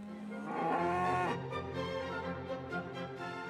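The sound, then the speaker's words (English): Cattle on a farm's small livestock holding of 15 cows, 15 calves and a bull moo: a loud, drawn-out bellow that swells and then fades, followed by lower, rumbling lowing with no talking. “Now, his main business is growing organic vegetables, but he still has a small livestock holding but 15 cows and 15 calves and the bull.”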